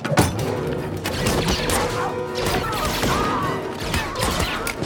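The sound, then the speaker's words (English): Rapid, loud bursts of blaster gunfire crackle through a dense action mix in a film scene as soldiers are shot by their own comrades, punctuated by sharp crashing impacts of a kick smashing the face of a stormtrooper helmet, continuing steadily for several seconds. “Guys are getting lit up by his own comrades. Little kick. Smashes the face of a stormtrooper helmet.”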